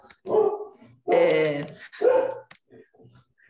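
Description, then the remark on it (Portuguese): A dog barks three times in quick succession, loud and harsh, the middle bark drawn out longer. A person briefly murmurs afterward. “desculpa o cachorro.”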